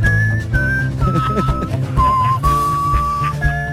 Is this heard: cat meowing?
no